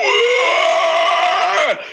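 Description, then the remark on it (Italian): A human voice imitates a howler monkey call: one loud, sustained, raspy howl lasting nearly two seconds, holding a steady pitch before dropping off sharply at the end. “Delle scimmie urlatrici”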